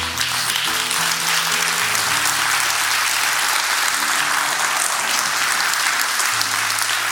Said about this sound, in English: Would you stand all over the building and clap your hands for the word today? Amen.